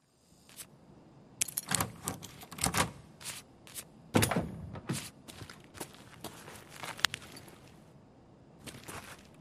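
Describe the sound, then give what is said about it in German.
In an offline raid in a video game, a key turns in a lock and a door clicks open, followed by a run of sharp handling clicks, rustles and scattered footstep-like thuds as the player loots, irregular, with no voices. “Äh, da hören wir mal rein, wie ich einen Schlüssel aufschließe und ein bisschen loote.”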